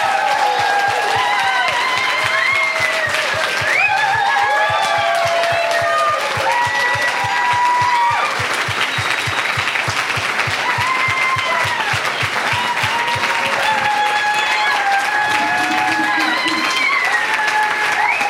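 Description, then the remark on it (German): A church crowd breaks into loud, sustained applause for two people and everyone else who stays with the church, lasting about eighteen seconds, the dense clapping mixed with cheers, whoops and overlapping excited voices throughout. “Also stellvertretend euch beide mal einen Applaus geben und allen anderen auch.”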